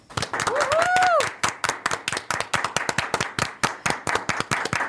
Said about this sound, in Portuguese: E essa homenagem é para todo mundo que está assistindo, para todos os especialistas que passaram por aqui, para os nossos apresentadores, para o nosso time time da produção, salva de palmas, por favor.